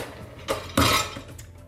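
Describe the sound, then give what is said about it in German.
Dishes clink and clatter briefly as they are set down while loading a dishwasher, with a short knock followed by a louder, ringing crash of crockery, then quieter rattles trailing off. “mache ich noch die Spülmaschine fertig.”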